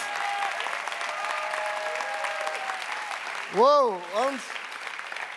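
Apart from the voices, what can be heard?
audience applause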